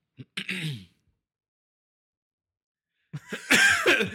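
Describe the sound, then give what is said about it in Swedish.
A person clears their throat and coughs in two loud bursts, once briefly near the start and again more forcefully after a few seconds of silence. “Hosta. hosta.”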